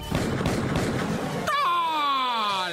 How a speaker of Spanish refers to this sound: Y ahora sí el momento espeluznante que todos esperaban. El grito en vivo y a todo terror de la llorona.